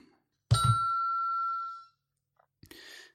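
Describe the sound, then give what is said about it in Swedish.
A single bright electronic ding from a sound effect machine rings out clearly and loudly, its tone sustaining for over a second before fading, followed after a brief pause by the start of someone speaking. “Och uh, du har en egen ljudeffektsmaskin men det är så ja.”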